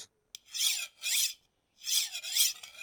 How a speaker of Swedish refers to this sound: Jag slipar till yxan igen i äggen där och ser till att den ser bra ut ja.